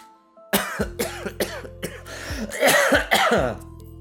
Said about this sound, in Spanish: justo antes de ponerse a toser con fuerza.